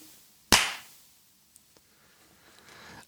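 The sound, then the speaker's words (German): A single sharp hand clap cracks out loudly, its bright snap trailing off in a brief ring, followed by quiet with a few faint ticks. “Es wird klatscht.”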